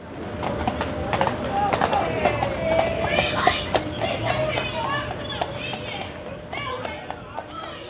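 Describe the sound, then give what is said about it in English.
Horse hooves clip-clop in an irregular patter on hard ground as a mounted police officer uses the horse to move young people onto a tram, while a crowd murmurs and chatters all around. “Um, but you know, they were young kids, and they were being a bit lippy, and and, and this police lady was on horseback, uh, and she literally used the horse to persuade them with the horse's nose to get onto the tram.”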